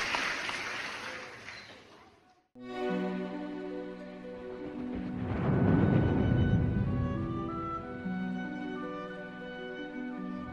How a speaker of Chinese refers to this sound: 让我们再来欢迎下一位，这位去年也参加过选拔的小丑鱼球球，今天再次莅临现场比赛，我们掌声欢迎他！